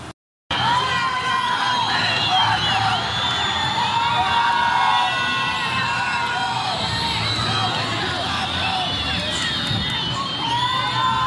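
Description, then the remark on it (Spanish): A packed crowd, estimated at more than a thousand people, cheers continuously in the stands of the Caldas stadium during an Ultimate final. A dense roar of many voices with high shouts and whoops rising above it, loud and sustained after a brief silent start. “No sé si escuchan en el fondo. La tribuna está llena.”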